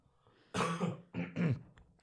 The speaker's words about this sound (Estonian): ma kohe köhin ka, sest mul on, ma naersin nii palju